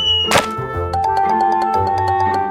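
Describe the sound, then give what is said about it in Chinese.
One heavy, dull thud of a small turtle landing on the ground after a crocodile's tail flung it into the air hits early, then gives way to light, tinkly background music with a steady run of plucked notes; no one speaks. “土拨鼠听到乌龟落地的声音后，”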